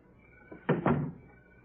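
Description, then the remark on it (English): A door swings shut with two quick, solid thuds in close succession, a dull wooden knock followed by the latch settling, moderately loud amid quiet. “Close the door.”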